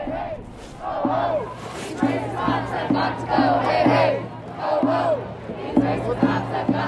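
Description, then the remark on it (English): A protest crowd in Seattle, protesting after the death of George Floyd, chants loudly in a steady, repeating rhythm, many voices rising and falling together over a low, constant drone that carries through the whole stretch. “There have been protests here in Seattle.”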